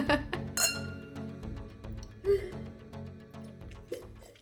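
glasses clinking

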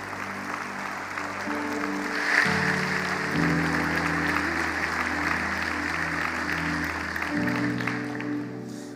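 audience applauding

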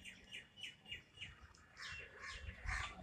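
birds calling outside

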